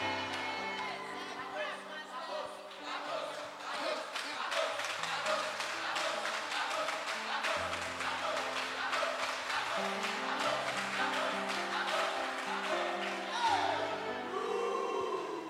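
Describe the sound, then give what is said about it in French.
An Assemblée de Dieu audience shouts and cheers loudly and continuously, many voices overlapping with scattered claps, over steady sustained keyboard-like tones throughout. “Mais les amis d'assemblée de Dieu, lorsque tu vois ces amis-là Entrer de crier là, est-ce que c'est pas beau?”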